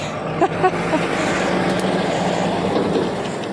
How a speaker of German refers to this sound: So, jetzt mache ich mal kurz hier eine Pause, weil hier fährt ein LKW vorbei.